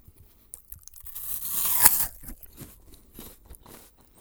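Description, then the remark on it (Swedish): A crisp bite into an apple, made as an ASMR sound with a prop: a loud tearing crunch swells and snaps, followed by softer wet crackles of chewing, with no voices. “Är det ett äpple du tar en tugga av?”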